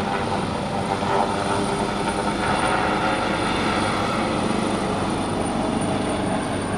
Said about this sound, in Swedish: Nu sticker en helikopter här.